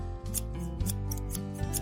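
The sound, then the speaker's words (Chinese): Scissors snip through hair in a quick, steady rhythm, about six crisp, bright snips over a low background hum, with no voices. “那要开始剪喽。”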